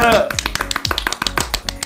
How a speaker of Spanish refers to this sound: Me aplaudo yo sola, sí.